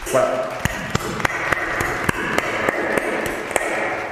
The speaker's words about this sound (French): Et là, mesdames et messieurs, euh, honnêtement, honnêtement, j'ai envie d'applaudir très très fort parce que euh,